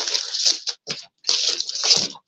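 Dry rustling and shuffling as someone digs through towers of books, with bursts of papery scraping broken by a couple of brief pauses and soft thumps.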